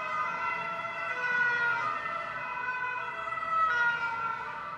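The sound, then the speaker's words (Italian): Carabinieri police car sirens wail continuously with stacked tonal harmonics, five cars sounding together over a low rumble of traffic, swelling slightly as they pass. “No, i caramba.”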